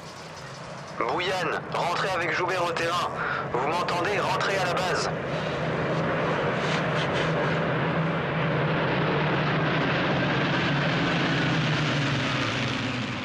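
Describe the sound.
A steady, loud propeller aircraft engine drones throughout, a low rumbling hum with a broad roar. Brief indistinct voices sound over it near the start before the engine carries on alone.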